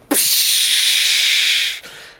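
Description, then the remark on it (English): A voice imitates glass shattering in an explosion, depicting a cast shatter spell: a sudden burst into a loud, sustained hissing crash lasting over a second, then cutting off abruptly, alone. “And explodes into a giant pile of glass everywhere.”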